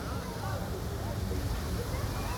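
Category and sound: nature, waterfall rushing water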